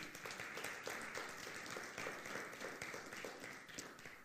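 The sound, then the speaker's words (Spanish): An audience applauds the Lord during a sermon, many hands clapping together in a dense, continuous wash of sound that holds at an even level throughout, with no voices standing out. “Si usted está en el libro de los Hechos, capítulo 13, verso 38, denle un fuerte aplauso al Señor.”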